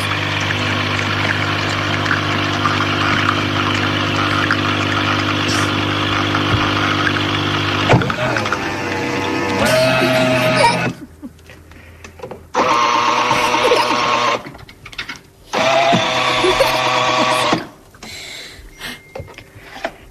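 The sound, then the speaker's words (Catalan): A new coffee maker runs with a steady mechanical hum for several seconds, then breaks into loud buzzing pump bursts separated by short pauses, with no talking. “Van comprar una cafetera nova, però no hi...”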